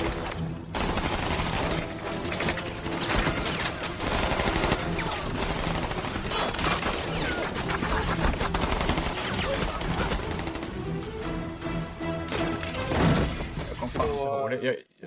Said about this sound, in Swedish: Uh, och middagsscenen där han bara mejar ner folk, så det, liksom, det kommer ut folk från alla möjliga jävla dörrar och han bara skjuter ner allt och alla som kommer.